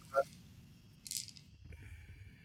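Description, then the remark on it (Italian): A handful of seven dice rattles and clatters in one short burst as they are rolled, with a small click just before and faint voices murmuring underneath. “intanto fate il breve quindi tiro 7 dadi io praticamente”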